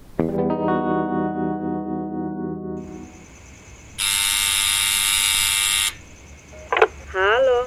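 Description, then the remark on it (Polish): An apartment building intercom, rung from downstairs late at night to call on neighbours, buzzes in one loud, harsh, continuous burst lasting about two seconds. A lower droning hum comes before it, and a brief voice answers right afterward. “Ale najlepiej to idź na dół i od razu domofonem dzwoń po ludziach.”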